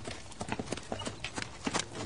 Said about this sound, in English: And then he whipped them horses and on up the street he went.